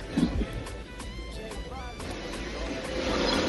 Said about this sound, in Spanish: Ahí yo, yo oigo que está como en una moto o en un carro.